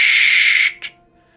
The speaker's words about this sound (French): Et euh, arrivé aux alentours de 19h, euh, 19h30, vous entendez encore une fois ce, ce merveilleux sifflet à vos oreilles.